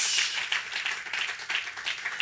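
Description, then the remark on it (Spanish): A crowd applauds God together, a dense wash of many hands clapping steadily at moderate volume, with the claps blurring into continuous noise for a couple of seconds. “Den un aplauso a nuestro gran Dios.”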